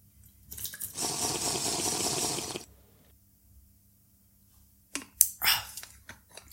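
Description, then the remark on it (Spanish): Water pours steadily into a glass for a second or two as someone gets a drink of cool water. After a quiet pause come a few short sounds like sips and swallowing. “Es que es, bueno, yo creo que vamos a beber un poquillo de agua.”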